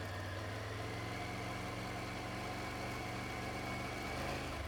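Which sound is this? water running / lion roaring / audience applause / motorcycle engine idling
motorcycle engine idling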